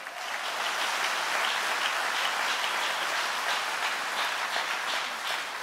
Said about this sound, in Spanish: ¿Cuántos dicen gloria al nombre del Señor? Dale un aplauso fuerte, fuerte.